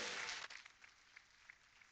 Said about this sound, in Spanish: Dele ese aplauso a él y a su nombre.